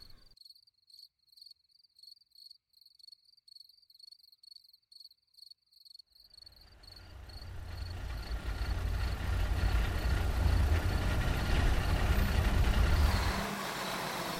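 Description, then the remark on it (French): Crickets chirp steadily in a quiet night until a truck with its headlights on rumbles in, growing loud, then settles into a low idle before cutting off near the end as it parks a few metres from a group of people. “Des phares apportant un peu de lumière à la scène apparurent et le camion de tout à l'heure stationna à quelques mètres du groupe.”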